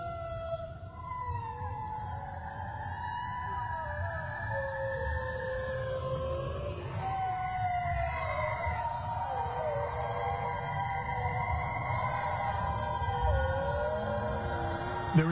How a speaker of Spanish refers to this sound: Había otro sonido en la grabación. Era el grito de un animal. Nos dimos cuenta de que era un bloop la misma criatura que la NOAA grabó en 1997.